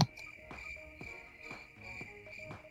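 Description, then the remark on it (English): Crickets chirp steadily in a sustained high trill, with a few soft, regularly spaced thumps beneath them; a quiet, isolated sound effect with no voices. “crickets already, and I'm just welcoming people right now.”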